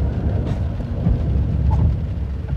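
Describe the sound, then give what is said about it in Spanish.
Vehicle brakes: a loud, steady low rumble with rough grinding texture throughout, and a brief faint higher tone partway through. No one speaks. “Son los frenos.”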